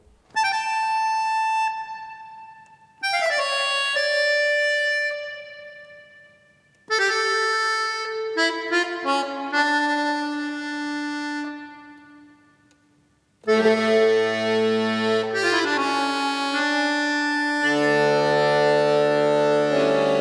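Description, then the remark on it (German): A chromatic accordion plays a baroque-style piece alone, sustained reedy chords and moving bass lines in several phrases separated by brief pauses, fairly loud. “Fast so gut wie unser Freund Bach auf einem chromatischen Akkordeon.”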